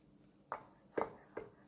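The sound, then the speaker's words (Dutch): A knife finely slices chestnut mushrooms from a 250-gram tray on a cutting board in three crisp, evenly spaced chops, fairly quiet, with no talking. “even de champignons fijn snijden.”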